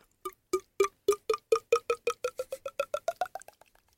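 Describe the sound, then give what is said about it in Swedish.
A voice imitates wine glugging from a bottle: a quick run of hollow mouth pops that speed up and rise in pitch, fairly loud, then fade out. Nobody speaks. “Låter som att man häller ur en vinflaska.”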